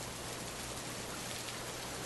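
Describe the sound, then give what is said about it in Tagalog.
Heavy rain pours down on the corrugated metal roof of a waiting shed in a dense, steady hiss that fills the whole stretch without easing, loud, with no voices or other sounds. “Lumipas ang ilang minuto pero napakalakas pa rin ang pagbuhos ng ulan.”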